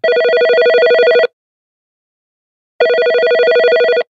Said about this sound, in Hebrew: בשעה עשר דקות לעשר, הטלפון של מינה צמח מצלצל.